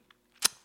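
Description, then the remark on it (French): A single sharp, wet mouth click pops out, preceded by a faint tick and followed by a couple of softer smacks, with no talking. “Ensuite, oula, c'est un bruit de bouche qui n'a pas été très très agréable, ça.”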